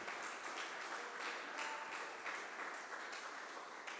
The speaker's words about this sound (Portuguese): Vamos aplaudir Jesus? Vamos aplaudir Jesus, gente?